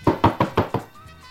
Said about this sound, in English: you can make that noise for my buzzer, and you can also bang on the pizza box.